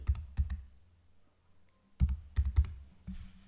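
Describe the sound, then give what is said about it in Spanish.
Six sharp keyboard clicks as a six-digit verification code, received by email, is typed: two quick taps, a pause of over a second, then four more in an uneven burst. The code is entered while setting up software on a Mac. No one speaks. “Me ha dicho que ha enviado un código de seis dígitos a mi email y ahora lo que vamos a hacer es comprobar, voy a comprobar, tengo aquí mi teléfono, que me ha llegado el correo y efectivamente me ha llegado el correo, voy a colocar aquí”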